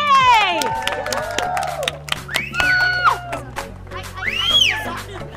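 A crowd bursts into applause and cheering, with scattered clapping under rising and falling whoops and shouts that swell and ebb for several seconds.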